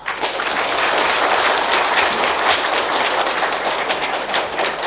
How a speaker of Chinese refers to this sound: 那么，就让我们用热烈的掌声欢迎沈志华教授。